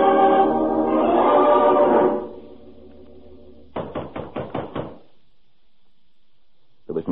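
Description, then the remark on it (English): A quick run of about six firm, sharp knocks on the wooden door of a lone hut after a sustained tonal swell fades out; one more faint knock-like tap comes near the end. “answer to my knock.”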